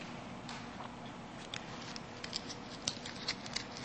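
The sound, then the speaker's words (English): Soft crinkling and rustling of a $20 paper banknote being crumpled, with irregular small crackles and a few sharper crisp snaps toward the end, fairly quiet and with no voices. “And we can be rough, rumpled up and crumpled up and stepped on.”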